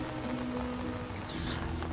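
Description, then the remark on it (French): Heavy rain pours down steadily in a dense, unbroken hiss, beating against window panes, with a faint low hum beneath and no voices. “Il n'y a pas un bruit, si ce n'est le fracas des vagues en contrebas et la pluie battante qui frappe ton impair, et les carreaux des fenêtres.”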